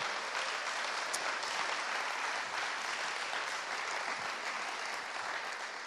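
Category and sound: crowd, audience applause in church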